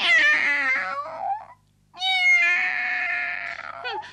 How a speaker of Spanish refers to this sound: En el camino se encontraron con una gata que maullaba lastimeramente.